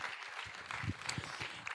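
An audience gives short applause for the news of a new church plant in Ingolstadt, many hands clapping together in a dense, steady patter that lasts just a couple of seconds.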